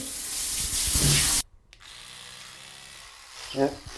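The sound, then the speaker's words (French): Teeth being brushed: a loud, harsh scrubbing hiss runs for about a second and a half, cuts off sharply, then softer brushing noise continues with a short muffled vocal sound near the end. “En même que je me brosse les dents, hein.”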